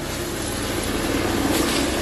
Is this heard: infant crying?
no